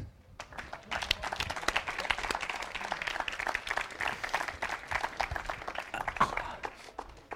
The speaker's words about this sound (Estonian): suurepärane, suur aplaus neile.